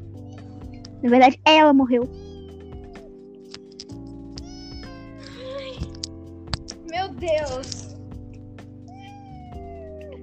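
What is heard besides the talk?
cat meowing repeatedly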